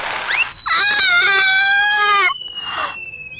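human body sound, child screaming

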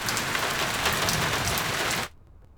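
nature, rain falling

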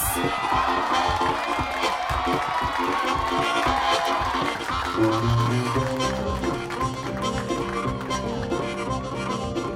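crowd, audience applause and cheering

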